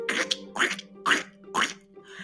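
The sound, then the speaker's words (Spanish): Four short, raspy quacks from ducklings hatching and breaking their shells on a farm come in a steady, evenly spaced rhythm, fairly loud, with a faint tonal hum lingering between them. “Por fin empezaron a romper el cascarón y poco a poquito se escuchaba.”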